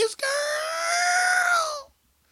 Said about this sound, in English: open up the window wide and scream out into the night sky.